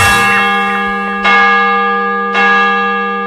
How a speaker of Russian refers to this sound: Вот это Брюссель, столица Бельгийского королевства. А слышите вы колокола Русской Православной Церкви